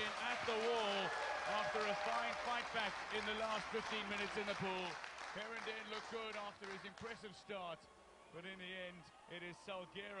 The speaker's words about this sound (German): Leider habt ihr es jetzt nicht gehört, weil ihr selber gejohlt habt.